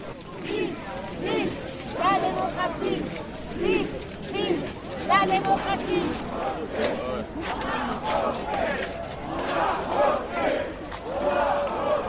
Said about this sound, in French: Radio Parleur s'est glissé dans la marche républicaine des libertés ce dimanche 27 janvier à Paris pour vous offrir un condensé de ce qu'on pouvait y entendre.